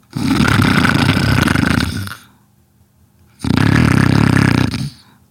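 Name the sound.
snoring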